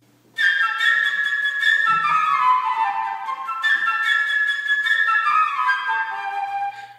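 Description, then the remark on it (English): A flute plays the theme representing the bird, a bright, high, chirping melody of quick trills and descending runs, repeated in two similar phrases, with no voices. “Those characters and instruments are the bird, represented by a flute,”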